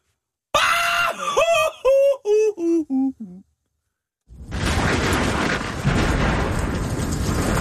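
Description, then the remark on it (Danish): A person lets out a loud shout, their own personal signature shout, that breaks into a series of about six short yelps, each falling lower in pitch, then stops; after a pause a steady roaring, rushing noise takes over. “Hvad skulle dit pasråb være? Mit, det skulle være...”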